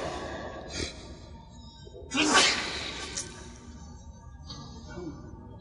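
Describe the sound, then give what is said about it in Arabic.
A single sharp sneeze bursts out, a quick breathy intake followed by a loud, noisy release, set against a faint background murmur. “رحمك الله”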